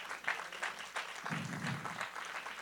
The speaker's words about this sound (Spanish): Dele un aplauso al Señor por ello, amén.